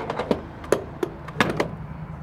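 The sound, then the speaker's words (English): A gas pump nozzle rattles as it's shaken to get all the gas out, a quick, uneven series of knocks and clunks, a few heavier thuds among lighter taps, ending as it is hung back up. “Gotta shake it, get all the gas out that we can.”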